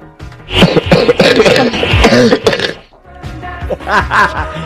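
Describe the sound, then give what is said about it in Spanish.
A nervous little cough repeats in two clusters, mixed with throaty, voiced clearing sounds, with a brief pause between the bursts. “es una tosecita. Entonces, esa tosecita nerviosa nos agarra a todos, ¿no?”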